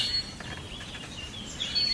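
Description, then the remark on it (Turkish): Several birds of various kinds chirp and twitter in a village, short overlapping calls and a few thin whistles rising over a steady outdoor hiss, with no voices present. “Çeşit çeşit kuş sesleri.”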